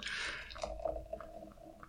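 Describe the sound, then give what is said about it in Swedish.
A wine bottle being opened: a bright burst of hiss at the start, then softer crackling fizz with a faint steady tone underneath, and no talking. “Det här är ju typ en vinflaska.”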